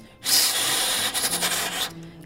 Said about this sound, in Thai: อันนี้ก็คือแค่เป่าเสียงลมผ่านเครื่อง